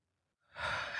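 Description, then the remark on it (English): A single deep breath drawn in through the nose, a soft airy hiss swelling up after a moment of silence and holding steady to the end, with no talking. “Keep breathing. Inhale through your nose.”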